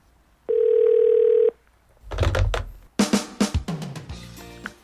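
A single steady ringback tone of a wife's call to her husband near 2 a.m., after he had not come home, sounds for about a second, clear, then gives way to muffled rustling and clattering noises with bursts of louder, indistinct sound.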